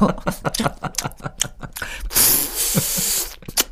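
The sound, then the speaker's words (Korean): A voice imitates popping bubble gum with a quick run of short mouth pops and clicks, followed by a sustained breathy hiss of air, with no talking. “자, 아, 이게 터트리고.”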